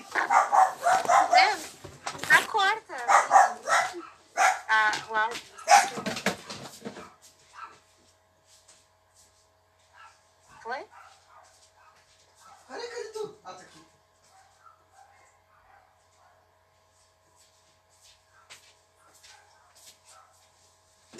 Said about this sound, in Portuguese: Para de latir no meio da gravação.